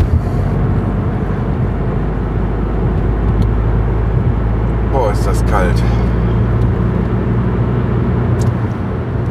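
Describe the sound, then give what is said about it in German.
A steady, loud low-pitched rumble of a car's engine heard from inside the vehicle while the car warms up, droning without a break, with a person briefly speaking over it midway. The car has seat heating and steering-wheel heating. “Es dauert immer einen Moment, bis das hier warm wird im Auto.”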